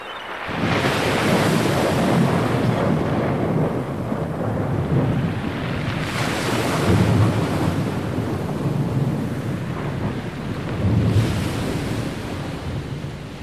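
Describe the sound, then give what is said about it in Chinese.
Loud, continuous roar of stormy sea waves with gusting, howling wind, swelling into heavier surges every few seconds, on a stormy night at sea by a fishing village in the Netherlands; no voices. “在一个狂风怒吼的晚上，强烈的风暴卷走了一艘渔船。”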